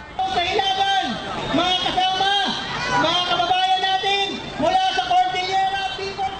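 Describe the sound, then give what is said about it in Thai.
Anti-Trump protesters shout over a loud, continuous commotion outside a summit meeting venue as they try to break through officials' barriers; many raised voices overlap in a chaotic roar that swells and surges steadily without any pause. “เสียงตะโกนกึกก้องและความชุลมุนปะทุขึ้นขณะที่ผู้ประท้วงขับไล่ทรัมป์พยายามฝ่าแนวกั้นของเจ้าหน้าที่ เพื่อเข้าไปใกล้กับสถานที่จัดการประชุมให้ได้มากที่สุด”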